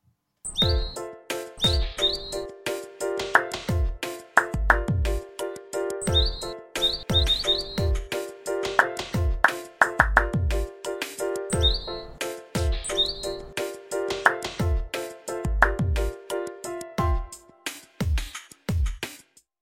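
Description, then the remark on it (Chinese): Quick clusters of high bird chirps and tweets pop up every few seconds over a steady, loud rhythmic music track with thumping bass beats. No one speaks. “你准备好来跟鸟一起打节奏了吗？”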